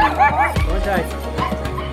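A dog barks and yips in short, excited bursts, with a few higher whimpering yelps mixed in over steady background noise, in Guatemala.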